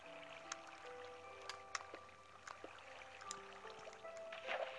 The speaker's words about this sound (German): Wasser, Wasser, Wasser, Wasser.